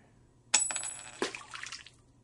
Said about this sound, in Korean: 기주가 바라보던 분수대 속으로 떨어지는 동전 하나